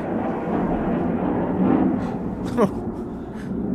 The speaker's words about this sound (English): okay, something's happening. Speaking of trains, it seems like a jet just flew three inches above my house. Yeah, it sounds like it.